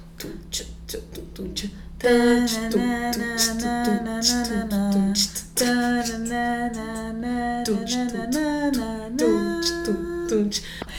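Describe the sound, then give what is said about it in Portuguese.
A voice beatboxes a funk beat with sharp, rhythmic mouth clicks and thumps, then another voice joins with a loud, steady sung melody over the pulsing beat. “Eu faço a batida, tu faz o tanã.”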